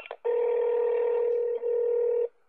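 Two quick telephone keypad beeps, then a long, steady electronic phone tone that holds for about two seconds with a tiny break before cutting off. Loud and close, with no voices.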